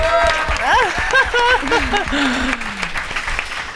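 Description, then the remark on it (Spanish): An audience claps steadily throughout for an introduced guest, a dense, loud patter of hands, while a voice rises and falls over the applause, whooping or calling out in a sliding, sing-song tone that fades near the end. “Un aplauso para esta cosa tan maravillosa.”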